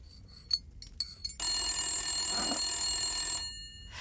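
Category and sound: household object, telephone ringing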